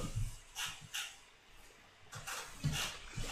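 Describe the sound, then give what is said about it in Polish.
A cat purrs in a soft, rumbling rhythm, with breathy rises and falls repeating every half second or so over a quiet background. “Słyszysz, jak mruczy?”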